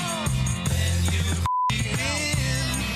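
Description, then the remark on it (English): Dense music with singing cuts out abruptly for a single short, steady censor beep over a swear word in the song, then the song resumes right after it. “All right, so now that I've pointed it out, I'm going to place the beep where it's at.”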